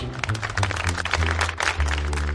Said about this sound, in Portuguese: Com licença a todos e a todas, cadê minhas palmas?